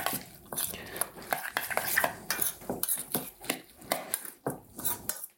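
All the ingredients, including chopped coriander leaves, being stirred together in a bowl, with repeated scraping and clinking of a utensil against the sides in an uneven, busy rhythm, fairly quiet with no talking.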